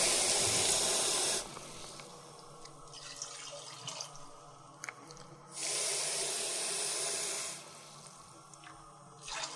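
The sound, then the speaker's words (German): Water gushes from a tap into a pot of Sauerbraten, adding a little more water so the meat is just covered, in two steady bursts of a few seconds each, separated by a quieter pause with faint clinks and handling sounds. “Und dann Also, jetzt noch ein bisschen Wasser.”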